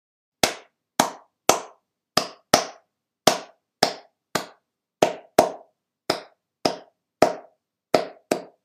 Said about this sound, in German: Anhören, anhören, anhören, fühlen und dann klatschen und aufsagen.